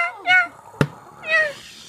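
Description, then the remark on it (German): Seagulls flying in the sky squawk over a Mexican beach in beautiful summer weather: two drawn-out, harsh cries with a wavering pitch, separated by a brief sharp knock in between. “Die Wellen rauschen, die Möwen fliegen am Himmel und krächzen ihr freudiges Gekrächze.”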